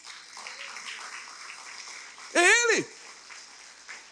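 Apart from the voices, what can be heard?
audience applause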